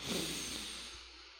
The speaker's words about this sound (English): I definitely think it helps me to be more present and often after I am done recording and I hit the stop button and I turn the recorder off, I will also sit back in my chair and sniff him and inhale this good lavender